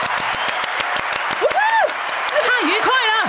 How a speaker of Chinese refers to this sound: 好了，掌声太长了，赶快把它卡掉。